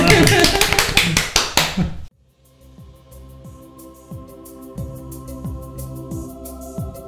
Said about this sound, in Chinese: 谢谢，谢谢，然 后自己鼓掌哦。